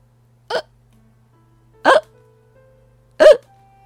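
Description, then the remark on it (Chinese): Three sharp, forceful hiccups from a pirate captain, violent enough to make him shake all over, spaced evenly about 1.4 seconds apart, each a loud, abrupt burst with a brief voiced gulp, separated by near silence with a low steady hum underneath. “船长开始因为激烈的打嗝而浑身颤抖。”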